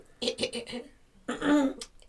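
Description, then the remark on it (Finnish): A voice imitates a woman's short cough, like a woman coughing as she begins to speak: a few quick, breathy bursts, a brief pause, then a longer voiced throaty sound, fairly loud and with no other noise. “Aloin hössöttää kanille ja olin jatkamassa TikTokin selaamista, mutta kun ihan niin kuin joku nainen yskäisi, kun aloittaa puhuminen”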